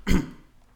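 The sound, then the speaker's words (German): A single sneeze, a short, loud, explosive burst that cuts off quickly and leaves near silence. No one speaks. “Gesundheit.”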